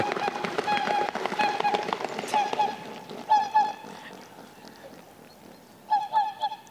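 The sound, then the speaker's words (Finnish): A whooper swan takes off across water, its feet slapping the surface in a rapid run and its wing feathers audible, while loud, trumpeting honks ring out in short bursts. “Ja tänään sitten lopussa on muuten se kohta, kun se lähtee sitten liikkeelle sekin oli meille tänä, tänä vuonna ainutlaatuinen kokemus, kun kuultiin näitä läpsy, läpsytteleviä ääniä veden pinnassa.”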